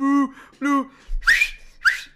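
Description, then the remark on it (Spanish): A voice imitates loud whistling: two short tonal hoots, then two sharp, breathy whistle-like bursts that rise in pitch, all within about two seconds. “A los chiflidos como si tuviésemos, no sé.”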